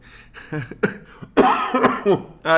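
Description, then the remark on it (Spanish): A harsh fit of coughing: a few short hacking bursts followed by a rougher, louder cluster, with a brief spoken exclamation at the end. “Bueno, me voy que me agarro la tos.”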